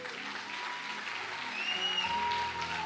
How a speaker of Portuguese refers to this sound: Eu quero que você aplaudisse o Senhor pela vida